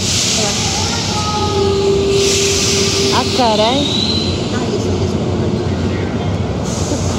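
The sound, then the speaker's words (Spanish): A subway train at a station platform filling with dark grey smoke: a loud, steady rumbling roar with a long whining tone and a burst of wavering metallic squeals partway through, while a person speaks briefly over it. “Estoy sentada de espaldas al tren.”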